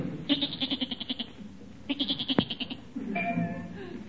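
A goat in Gillis's garage bleats in two rapid, wavering bursts, each a quick tremolo of pulses, followed by a longer, lower bleat; fairly loud with a faint background hum.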